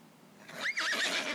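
A horse whinnies once, a high wavering neigh that rises and warbles for under a second, clear with no talking over it.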